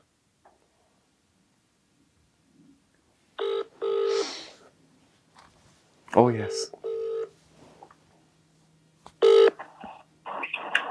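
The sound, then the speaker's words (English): Electronic telephone tones sound in several short, bright bursts, like keypad dialing followed by ringing, fairly loud, with a voice briefly speaking between them, as a phone-a-friend call is placed during a Who Wants to Be a Millionaire game. “Yeah, uh, yeah phone, use your phone, a friend.”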